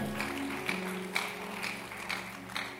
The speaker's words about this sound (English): In the name of Jesus, give the Lord a mighty clap offering.